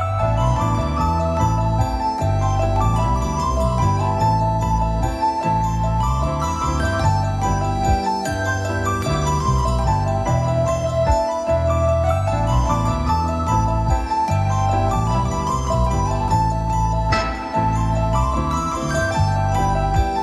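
Steady, full instrumental music plays throughout with no voices, a chiming, bell-like melody ringing over a busy, repeating bass pattern at a constant loud level.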